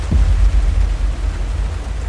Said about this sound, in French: on avait dit qu'on se prend un orage